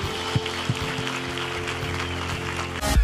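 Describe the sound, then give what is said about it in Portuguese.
A church audience at a Hillsong service applauds people who have just prayed to follow Jesus, a steady, even wash of clapping that holds for a few seconds, with a low sustained hum beneath it and a louder swell right at the end. “Igreja, podemos dar uma grande salva de palmas a todas estas pessoas.”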